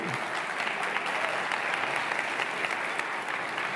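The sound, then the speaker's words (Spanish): An audience applauds steadily and loudly, a dense wash of many hands clapping throughout, with faint murmuring voices mixed underneath. “Si vas a aplaudir, apláudele bien.”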